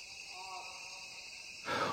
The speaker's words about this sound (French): On entend un toucan à bec rouge, le chant des cigales, puis, dit Krauss, deux oiseaux très chantants, le troglodyte ararda et l'ibigeau gris, accompagnés de perroquets qui conclut l'enregistrement au lever du jour.